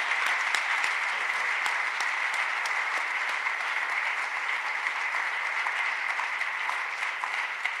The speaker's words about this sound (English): Let's give uh, our presenter a hand tonight.